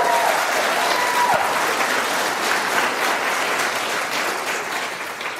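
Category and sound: crowd, audience clapping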